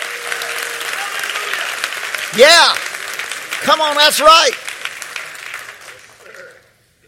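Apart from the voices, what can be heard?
audience clapping hands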